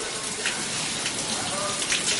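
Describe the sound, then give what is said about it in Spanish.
Shower water runs in a steady hiss, a dense continuous spray with no pauses, filling the whole moment with an even wash of sound. “En la ducha.”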